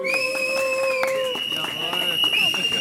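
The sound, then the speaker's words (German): A protest crowd of building management staff cheers and claps loudly and steadily for about three seconds, with sustained shrill whistles or horn tones ringing over the roar. “Aus dem Gebäudemanagement, euch oh, will ich hören.”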